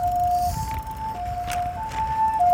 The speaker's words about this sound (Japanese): えー、救急車が近づいてきました、あとはよろしく頼むぞ、えー、仲間たち、えー、僕は救急車はねあの骨折して乗る側の人ですからねあの見る側じゃないんでね、えー、おーっと来ました救急車